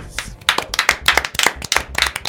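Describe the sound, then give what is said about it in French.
A small group applauds the winner of the Stranger Quiz, a scattered patter of individual claps with uneven rhythm, fairly loud and bright, continuing steadily throughout with no voices. “Eh, pour une fois qu'on n'a pas deux applaudissements, c'est qu'on a plus.”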